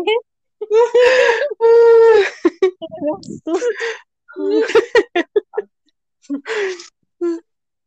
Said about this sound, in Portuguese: Participantes de podcast tem um ataque cardíaco após grito durante as gravações.